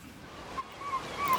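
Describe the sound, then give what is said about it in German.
Strong wind from storm Poly roars over crashing surf at a beach bar on the island of Juist in a broad, steady wash of noise, with gusts swelling louder toward the end and a faint whistling tone drifting through. “Sturm Poly über der Juister Strandbar”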